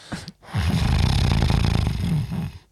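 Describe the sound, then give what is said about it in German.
A person imitates a loud, rattling nasal snore through the nose, one sustained rough snort lasting about two seconds after a brief short breath, with no talking. “Manche kennen es auch vom Schnarchen, ne?”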